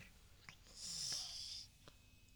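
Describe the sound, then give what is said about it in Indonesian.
A person imitates a snake with a single sustained, breathy hiss lasting under a second, fairly soft, with faint clicks before and after and no talking. “Gimana suara ular?”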